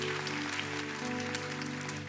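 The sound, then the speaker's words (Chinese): Steady crowd applause from a Christian church gathering, given for the audience's online members: a dense patter of many hands clapping at once, sustained and fairly quiet, with a faint low tonal hum running underneath and no voices. “我们再给我们网络上的会友们一个掌声，可以吗？”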